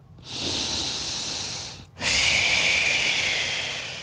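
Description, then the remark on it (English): A voice imitates the deep, heavy breathing of someone sleeping in bed, not snoring: one long, rough inhale followed by a longer, forceful exhale, fairly loud, with a brief pause between them and no talking. “Like the deepest, heaviest breathing you've ever heard of in your life.”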